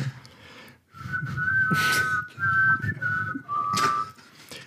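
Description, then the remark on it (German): A single person whistles a sustained melody in which two distinct tones sound at once, gliding between pitches over several phrases, fairly loud with breathy air noise and no talking. “Hast du das alleine jetzt das Zweistimmige da jetzt gemacht?”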